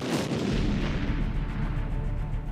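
A cannon fires once with a loud, close blast, followed by a heavy low rumble that rolls on and fades slowly. No voices.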